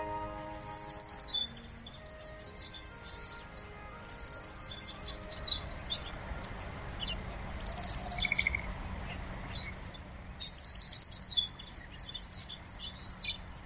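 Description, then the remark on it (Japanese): A Japanese wagtail (Segurosekirei) sings on stones piled on the shore of Lake Kitaura in eastern Ibaraki Prefecture, Japan, in bright, rapid bursts of twittering notes, several phrases separated by short pauses, over a low, steady background of water or wind. “岸辺に積み上げられた石の上で小鳥がさえずっていましたセグロセキレイです”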